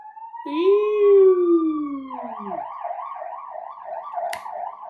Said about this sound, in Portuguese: São uma ambulância.